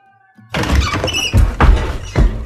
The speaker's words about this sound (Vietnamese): Các ngươi làm gì vậy Y Điêng đứng bật dậy khi mà từ bên ngoài đám đông vừa đập bung cửa nhà mi thơ sộc vào